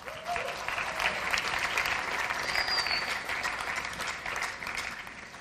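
Steady applause from an audience for a man who fetched a flipchart fills the whole stretch, a dense patter of many hands clapping at once, fairly loud and sustained without pause, with a faint voice or whistle briefly audible.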